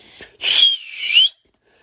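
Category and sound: human body sound, person whistling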